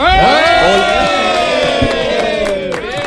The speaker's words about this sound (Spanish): Voy a voy a pedir entrar todos los días a y cuarto de la tarde para que me aplaudan de esta manera.